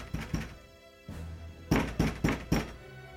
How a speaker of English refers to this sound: Is the door locked? I'm gonna try and push it open. It is locked. We start pounding on the door.